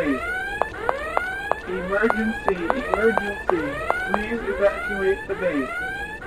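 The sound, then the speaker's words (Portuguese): A video game alarm siren, approaching the player, wails in repeated rising and falling sweeps, joined by short sharp electronic clicks, loud and continuous throughout with a layered, synthetic tone. “Você vê que a sirene está chegando perto.”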